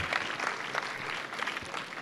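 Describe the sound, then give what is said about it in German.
An audience claps steadily to welcome a guest of honour named Walter, a dense wash of many hands with a bright, crackling texture that stays fairly even throughout, no voices standing out above it. “Gebt ihm nochmal einen herzlichen Applaus.”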